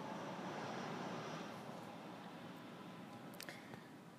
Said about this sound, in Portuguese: Agora tá passando um avião. Aqui não tem as maritacas, mas tem os aviões.